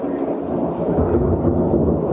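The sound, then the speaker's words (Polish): A deep, continuous rumble of thunder rolls steadily through the whole stretch, low and heavy, with a faint wash of rain-like hiss above it and no voices. “e, przepraszam, tak, grzmi.”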